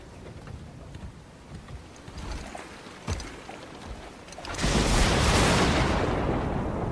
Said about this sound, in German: Blitze und Donner begleiteten ihn auf seiner Fahrt.